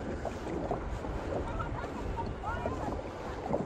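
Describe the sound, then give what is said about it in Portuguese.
A boat moves steadily across water, its constant rushing, churning noise filling the scene, with faint voices murmuring underneath. “Vou parar o barco ali. Tá andando nada mesmo?”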